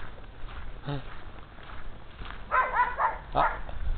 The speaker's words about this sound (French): Ah, un chien.